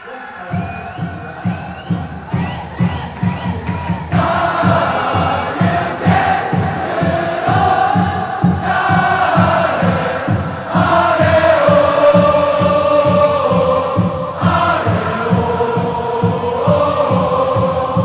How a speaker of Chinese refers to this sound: 所以说那个接下来给大家放一段这个川崎前锋队他们在现场，然后球迷唱那个前锋队队歌的一个声音。